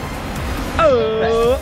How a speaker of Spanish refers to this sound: Oye, cuántas olas, ¿eh?